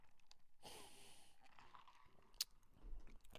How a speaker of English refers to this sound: Let me take a sip of my vanilla latte.